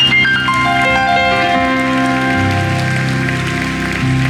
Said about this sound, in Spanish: Vamos, darle un fuerte aplauso a Jesucristo.